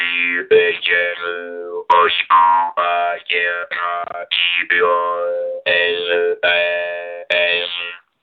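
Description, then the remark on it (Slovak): A louder-sounding jaw harp (drumbľa) twangs in short phrased bursts, its buzzing overtones sliding up and down to mimic the rhythm and inflection of the spoken radio greeting "Dobrý večer, počúvate rádio SBS", loud and steady with brief gaps between syllables. “Hej, vyberali sme na to drumbličku takú zvučnejšiu,”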